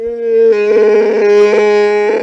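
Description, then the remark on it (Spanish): A person vocally imitates the roar of Chewbacca, the Star Wars Wookiee, thanking for a medal in the J.J. Abrams film: one loud, sustained, growling howl with a warbling, rough texture, lasting about two seconds with no other talking. “¿Y cómo lo agradece Chubaca,”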